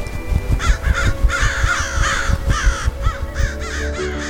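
A crow caws repeatedly in harsh, rasping bursts, roughly one call every half second, loud and uneven in rhythm, with no voices present.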